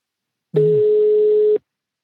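A single steady telephone ringback tone as the show phones its online producer, one clear, fairly loud one-second beep of a phone ringing on the other end, starting and stopping abruptly with silence around it and no voices.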